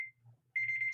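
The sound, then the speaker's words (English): An alarm clock rings with a loud, high-pitched electronic tone that cuts in suddenly and pulses rapidly, over a low background hum, after a brief chirp of the same tone at the start. “That's my alarm.”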